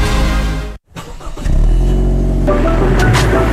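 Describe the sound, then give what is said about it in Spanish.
A car engine roars loudly, cuts out for a moment, then revs back up and keeps growling steadily with no one talking. “En Salfarrent hay un auto preparándose para ir a veranear contigo.”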